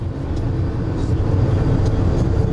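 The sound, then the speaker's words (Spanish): A loud, steady low-pitched roar of a large truck carrying prefabricated houses rushing past at speed, its heavy engine and road noise filling the whole moment with no one speaking. “Este, por ejemplo, lleva unas casas prefabricadas encima. ¡Wow! ¡Qué velocidad!”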